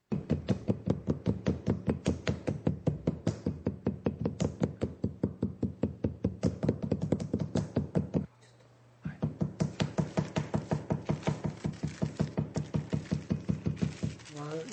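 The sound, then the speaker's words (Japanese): Two slabs of clay are slapped together to make a double layer while forming Matsushiro ware pottery over a tea-bowl mould: a fast, steady run of dull, flat thuds, about four or five per second, broken by one brief pause before the rapid slapping resumes. “そこの部分を二重にするためまずは2枚の土を叩き合わせていきます”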